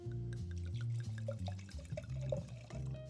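Wine pours steadily into a glass held close to the microphone, a gurgling, glugging stream with rising pitch as it fills, lasting about three seconds with no talking.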